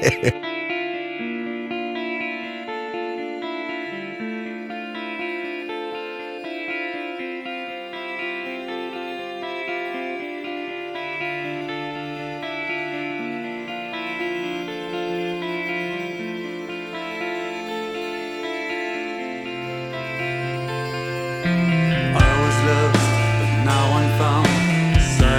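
A rock song with heavily processed, echoing vocals over sustained, droning guitar chords; around the last few seconds the band kicks in louder with crashing drums and a heavier low end.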